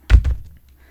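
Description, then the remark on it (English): A large, heavy book is heaved onto a chair and lands with a loud thud, followed almost immediately by a second softer bump as it settles. No one speaks. “Heave the book onto the chair.”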